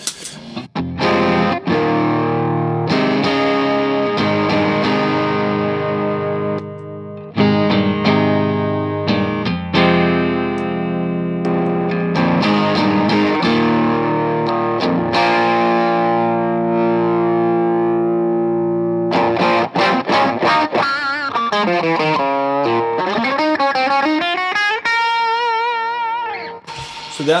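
Distorted electric guitar played through an effects pedal as a quick demonstration, sustained chords and riffs with a thick, saturated tone, ending in warbling, wavering pitch sweeps as the pedal's knobs are turned; loud, no talking.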